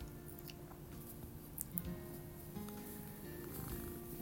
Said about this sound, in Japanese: 待って猫が来ちゃったゴロゴロ言ってますけれど聞こえてるかな